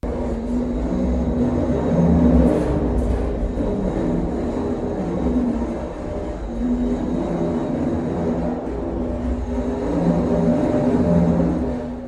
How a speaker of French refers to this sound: ce que vous allez entendre dans un instant, c'est le bruit de l'ascenseur quand on est dedans. Et nous n'avions, nous, que, quelques étages, on avait 10 étages à monter, mais imaginez qu'il puisse y en avoir encore 7 de plus.